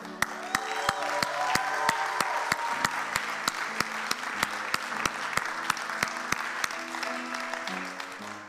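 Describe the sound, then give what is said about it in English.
A church audience breaks into sustained applause, cheering on an 11-year-old as they go, a dense wash of many hands with a steady rhythmic clap cutting through, while low sustained musical tones hum underneath throughout. “We're going to cheer you on as you go.”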